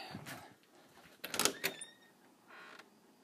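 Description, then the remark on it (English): A door creaks open, with a brief squealing hinge and a couple of clunks in the middle, then a faint scraping sound trails off. Nobody speaks. “I don't want to lock the door.”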